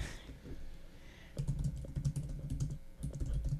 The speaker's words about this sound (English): typing.